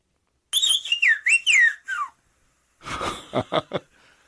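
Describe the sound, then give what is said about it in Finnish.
Clear whistled speech in Greek Sfyria, whistled by a man: a quick run of gliding, rising and falling pitch contours lasting about a second and a half, followed after a pause by a few short, breathy bursts. “yksi noin 70 vihellyskielestä”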